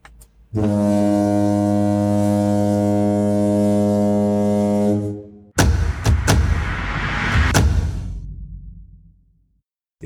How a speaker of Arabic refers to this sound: زمر زمر كابتن